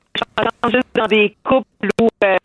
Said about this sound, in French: Petit problème de, téléphone, on a, ça coupe, ça coupe, euh, je ne sais pas euh, trop quoi, petit problème de transmission.